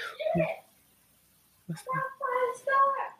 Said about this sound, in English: Oh, my noisy kids. Okay. Hey, be quiet.